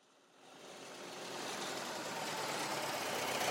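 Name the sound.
car engine idling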